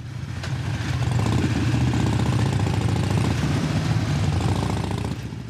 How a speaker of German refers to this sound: Einer der möglichen Bündnispartner ist für schöne Fernsehbilder in eine Bikermontur geschlüpft und macht mit 30 anderen Motorradfahrern eine filmreife Tour durch die sonst so beschauliche Sierra bei Madrid.